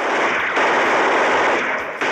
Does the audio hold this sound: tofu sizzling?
no